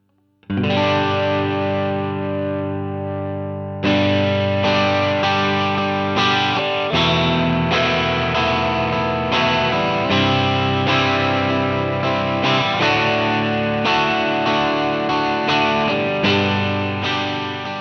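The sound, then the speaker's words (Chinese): A distorted, sustained instrument tone plays chords with a light touch of spring reverb, loud and steady with fresh attacks every second or so, no voices over it. “哎，这个混响就太多了，听着就浑浊了。稍微调小一点，有那么一丁点意思就得了。”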